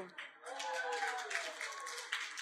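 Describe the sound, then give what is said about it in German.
A short burst of audience applause for the woman operating the projector, a steady wash of many hands clapping at moderate volume for a couple of seconds, with some voices mingled underneath. “Ein Applaus für die Beamerfrau.”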